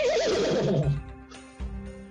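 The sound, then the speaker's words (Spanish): A person imitates a horse's whinny to show that the meat is horse meat, a loud, shaky warbling cry that wavers up and down for about a second, then trails off into lower, breathy humming tones. “Y me aplicó el sonido que hiciste. Ah, el caballito.”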